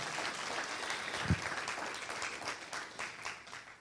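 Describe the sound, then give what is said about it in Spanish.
A church audience applauds the Lord loudly and steadily, a dense wash of many hands clapping at once with a brief thump near the middle, continuing without pause to the end. “Den un aplauso fuerte al Señor si usted desea el fuego de Dios.”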